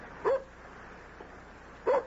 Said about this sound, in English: Haven't you had enough? Okay, okay. One more time. Okay. Fetch. Ha ha ha. Good dog.